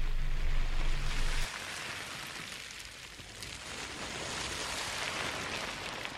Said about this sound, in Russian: И, кстати, это не звуки океана, это звуки пластика, который команда Less Plastic собрала на одном пляже, чтобы мы с вами услышали, как может звучать океан для будущих поколений.